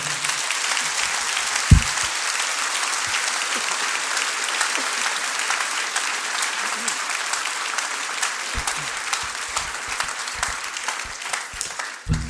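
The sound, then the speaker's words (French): A crowd breaks into sustained applause for Active, which supports local artists, a dense steady wash of clapping that holds at an even level for about twelve seconds, with a few louder individual claps standing out. “Mais en tout cas, s'il vous plaît, on applaudit Active parce qu'ils soutiennent les artistes locaux et ce sont des précurseurs.”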